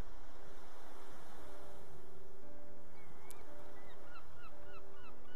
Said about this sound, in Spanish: Hay algunas gaviotas jugando alegres mientras vuelan en el cielo azul.